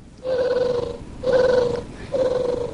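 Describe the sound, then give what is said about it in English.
An electronic Tribble toy purrs in three warbling, buzzy bursts, each under a second long with brief pauses between, fairly loud with no talking. “First of all, my Tribble says hello in case you haven't heard it.”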